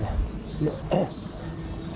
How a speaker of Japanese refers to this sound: セミで夏ですねよ